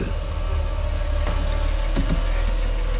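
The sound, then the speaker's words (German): A car engine runs steadily at a low, even rumble as Mrs. Logsmith parks her car in front of a sagging chain-link fence at a disused factory site in Los Angeles after dark, idling with a faint harmonic hum and a couple of brief soft clunks, no voices present. “Als Mrs. Logsmith ihren Wagen vor dem eingesunkenen Maschendrahtzaun parkte, war es bereits dunkel.”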